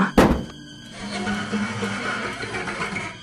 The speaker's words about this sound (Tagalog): Naririnig mo yon? Nasa bubungan siya ng kotse! Parang kinakahig ng matalim na kuko ang bumunga ng kotse habang hinahampas-hampas ito ng napakalakas. Sa sobrang lakas ng kalampag, nayupi na ang bumunga ng sasakyan.